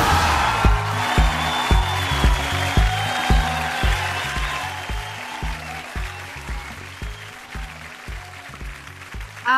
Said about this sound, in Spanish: aplausos para esta gran invitada. Es un honor, cariño, tenerte aquí en la Junta Comunidad.